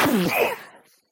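A single loud, explosive human sneeze, close and voiced, bursting out sharply and then trailing off over about a second, with no talking.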